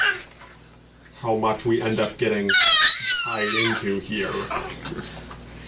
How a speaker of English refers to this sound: I apologize for the squealing baby, by the way. He's very happy though. Is he? Oh yeah. He is. Yeah, no. Are you sure? Yeah, he's smiling.